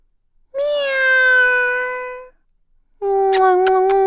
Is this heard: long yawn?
no